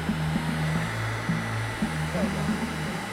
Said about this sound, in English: It's powered by a battery operated leaf blower and it blows air underneath this wooden circle I'm sitting on. The layer of air is very low friction, so I can slide across the ground on the gentlest of push.